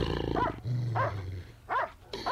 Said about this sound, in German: Sie hörten ein grässliches Knurren, Kratzen und Bellen.